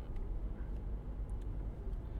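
Steady low rumble of road noise from inside a car driving through traffic, a constant muffled drone with no voices, continuous and fairly loud throughout.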